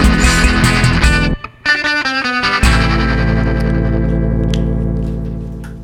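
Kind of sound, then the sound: music track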